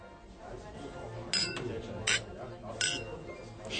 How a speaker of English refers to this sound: Wir sind jetzt in der Kneipe. Hinter uns, am Stammtisch, sitzen die Männer. Und wir wollen ihnen erstmal zuhören.